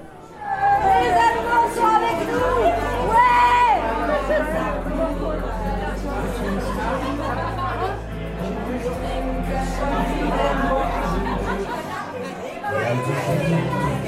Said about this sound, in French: Chaque 9 novembre, pour la date anniversaire de la chute du mur de Berlin. Et ce que vous entendez, c'est la bande son de cette soirée chute du mur.